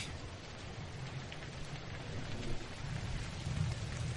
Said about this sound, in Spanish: ¡Ay, qué vaina! ¡Va a llover!